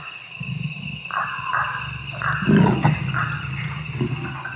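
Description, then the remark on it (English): A jaguar's low, rumbling growls come in repeated bursts, close and fairly loud, over a steady backdrop of frog, insect and reptile choruses in a tropical forest at night, beside a trail. “The sudden register of the jaguar's growls in my headset indicated that the cat was not more than”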